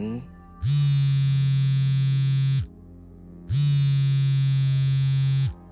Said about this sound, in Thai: ก็มีเสียงเรียกเข้าเจ้าเก่าจากโทรศัพท์มือถือเครื่องเดิม ดังขึ้นอีกครั้ง